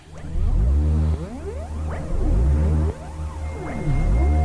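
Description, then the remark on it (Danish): A recorded music track, a first single from an upcoming album, plays loudly, built on deep, throbbing bass tones with swooping synth-like glides that rise and fall in pitch. No voices are heard over it. “Det her det er lyden af”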